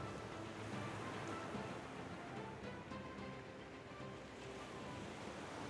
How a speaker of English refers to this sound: For tonight, three men and one seagull stand together, looking out over the ocean, listening to the sound of people laughing and talking and singing, and underneath it all, the sound of the waves crashing against the shore.